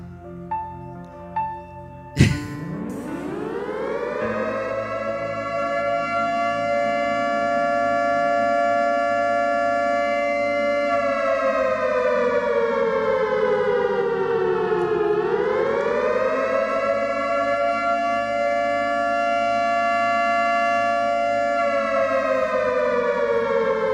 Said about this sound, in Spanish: Esto lo que está sonando cuando uno le está hablando a alguien de la salvación. Un sonido de alerta.